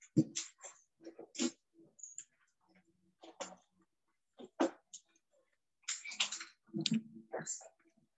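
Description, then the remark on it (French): Sticky tape being pulled off a roll and pressed onto a piece of paper: several crackly rips and papery rustles in irregular bursts, with short quiet gaps between them. “Et sur ce bout de papier, on met du scotch.”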